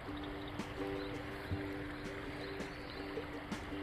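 A babbling river stream rushes steadily, a continuous wash of water with no breaks, with a faint low hum in the background and no voices. Heard beside a river during a morning walk on a mild, warm day that is not especially fine.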